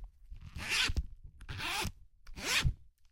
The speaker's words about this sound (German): Ihr hört es, Reißverschluss. Ich gehe da mal eben rein. Das heißt, Reißverschluss ist jetzt, ja, ist ganz auf.